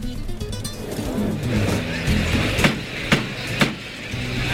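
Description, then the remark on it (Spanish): At a bullring, the torilero slams the bolt of the bull-pen gate three times in quick succession, each a sharp metallic bang, as a signal to open the inner door of the bull pen for the last Núñez de Tarifa bull. The bangs stand out over a steady low rumble and murmur. “Eh, lo que hace es pegar cerrojazo. suele debe ser como la contraseña para que abran la puerta interior de Chiquero.”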